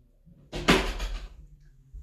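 A room door opens to let a cat out, with a single broad, scraping whoosh lasting about a second, then fades into a low, quiet room rumble. No one speaks.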